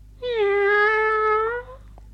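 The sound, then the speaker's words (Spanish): A single drawn-out cat meow, steady and clear, lasting over a second, with no voices or other sounds around it. “Y un día rompió un jarrón muy hermoso corriendo detrás de un gato.”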